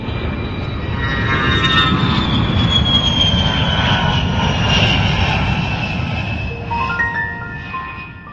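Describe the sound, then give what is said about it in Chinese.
An airplane bound for the United States takes off in autumn 2009, with a loud, steady engine roar layered with high whining tones that shift in pitch, the roar easing slightly toward the end. No one speaks. “飞机起飞后，也不知道过了多久，我妈告诉我，刚才机长广播说，现在地面上的肯尼迪机场没有可供降落的场地，所以飞机一掉头就飞回了大西洋。”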